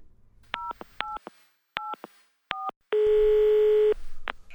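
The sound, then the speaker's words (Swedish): A person dials a phone to call their child: a quick series of four short telephone keypad dialing beeps, followed by a steady one-second ringing tone and a brief clicking noise at the end, all clear with no one talking. “Jag vet, jag ringer mina barn.”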